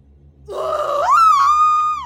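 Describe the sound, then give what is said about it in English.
A weak, strained scream from a 16-year-old girl attempting her signature scream: it starts as a low groan, then climbs into a thin, held, slightly wavering cry before cutting off, over a faint low hum. “Unfortunately, her scream hadn't aged well.”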